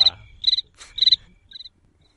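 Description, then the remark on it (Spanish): Crickets chirp in short, shrill pulsed bursts, about four of them at an even pace, the last one softer, with no voices, like a quiet night outdoors. “como comentario quería Miguel Ángel deja ponerme los grillos y di algo”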